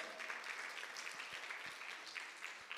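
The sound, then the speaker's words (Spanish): A church audience applauds the Lord together, a dense, steady wash of many hands clapping at once that holds at an even level throughout, with no talking. “Dale un aplauso al Señor, vamos a alcanzar esa meta.”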